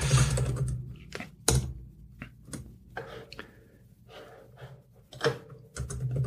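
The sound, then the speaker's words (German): Irregular clicks and clacks of someone typing on a computer keyboard to look something up online, with bursts of keystrokes separated by short pauses and no talking. “Tastaturgeräusch.”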